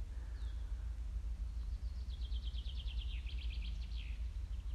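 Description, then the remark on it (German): Soft birdsong: quick, high trills and chirps repeat in short rhythmic bursts over a steady low background rumble, with no voices present. “Sogar die Vögel haben nicht mehr so laut gezwitschert.”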